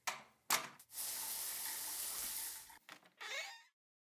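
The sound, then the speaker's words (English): A steady rush of shower water runs for a couple of seconds, framed by brief clunks and rattles before it starts and after it shuts off. “I'm going to hit the shower real quick and I'll be right back.”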